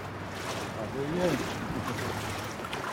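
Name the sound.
water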